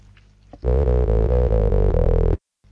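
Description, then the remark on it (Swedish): A short intermission sting marking a reconnected phone call plays loud and clear for under two seconds, a rich harmonic tone stepping through a few notes before cutting off abruptly into silence. “Men för tydlighetens skull, så att du kan följa den röda tråden i intervjun, så har jag lagt in ett litet eh, intermission-läte som låter så här.”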